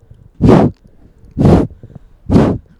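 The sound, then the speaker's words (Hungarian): Three loud, breathy puffs of air blown straight into a microphone to blow a bug off it, evenly spaced about a second apart, each a short rushing gust with quiet gaps between. “bogár azt hiszi, hogy a mikrofonom az egy nagy pitypang. Igen, egy óriási sárga. Lefújhatom, lefújhatom, lefújhatom róla?”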